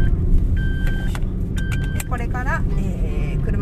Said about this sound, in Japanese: ピーピーガーガーうるさいかと思いますけれども今ねえー、っと車の車を走らせてこれから家に帰るところです